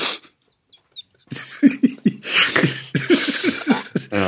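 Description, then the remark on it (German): A small dog named Welle makes a rapid run of yips and whiny, breathy noises, starting after a brief quiet and continuing in uneven bursts to the end. “Nur weil Welle gerade auch was gesagt hat.”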